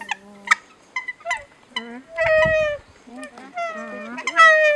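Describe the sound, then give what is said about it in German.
Several nene (Hawaiian geese) on the volcanic cone of Mauna Loa in Hawaii call back and forth in a series of soft, nasal, honking notes, some rising and wavering, with a brief rustling burst partway through. “Ja, so klingen sie auf dem Vulkankegel des Mauna Loa also auf den Inseln Maui und Kauai.”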